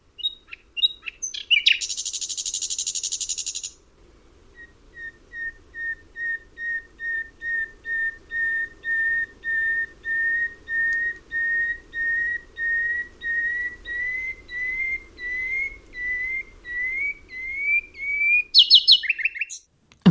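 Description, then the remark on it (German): A nightingale sings alone from a field hedge, opening with a harsh buzzing burst, then a long rising series of pure, evenly spaced whistled notes that speed up and end in sharp chirps. “und dort war jetzt eine Feldhecke gewachsen und es sang eine Nachtigall”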